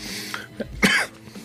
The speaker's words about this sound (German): Also nicht wundern, liebe Leute da draußen, wenn ich mal ein bisschen huste oder abrupt aufhöre zu sprechen.